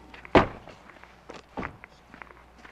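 A few hard, hollow thumps against a door: one loud knock, then softer scattered raps spaced over a couple of seconds, fairly close, with no voices.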